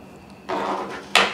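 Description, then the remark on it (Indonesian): A gas lighter: a sudden rush of hissing gas, then a sharp, bright click-and-spark burst near the end, with no voices over it. “apaan tuh korek aja Kok ada horornya ya?”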